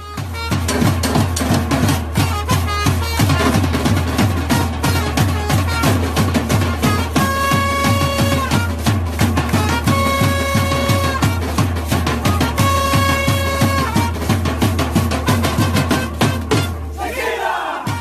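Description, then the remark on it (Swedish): A supporters' section at a match, most of its members equipped with instruments, keeps up a steady pounding drum rhythm with bells, including a dog bell, and brass-like instrument tones ringing over it, loud and continuous, with a crowd chanting underneath throughout. “Inte lät, utan så här låter det eh, när, när de liksom kör på matcherna.”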